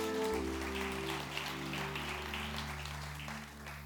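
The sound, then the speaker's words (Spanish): A church audience claps steadily together, giving a loud round of applause to God, a dense wash of applause with a sustained low musical hum underneath throughout. “Den un fuerte aplauso a su Dios, casa de Jesús.”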